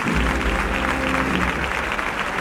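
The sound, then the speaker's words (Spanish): Sustained applause from a large crowd in the grandstands, a dense, steady clatter of many hands clapping at once with a low rumble beneath it, as the flag of Spain, carried by an army officer, passes during a Holy Saturday procession. “Aplausos que se repiten por donde va pasando la bandera.”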